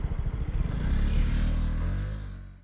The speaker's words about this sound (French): Je dois avouer que là, euh, ce que j'ai principalement entendu, c'est le scooter. Donc ça m'a rappelé qu'on est à Paris.